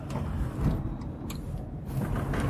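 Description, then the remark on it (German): A car drives around a corner on a parking deck, a steady low rumble of engine and tires with faint higher mechanical rattles, continuous throughout without any voices. “Das merkt man jetzt hier beim Fahren deutlich.”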